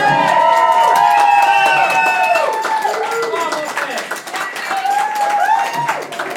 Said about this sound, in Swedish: Stort tack! Ge dem en applåd ordentligt.